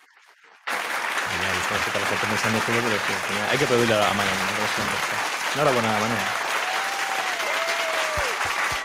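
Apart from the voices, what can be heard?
applause sound effect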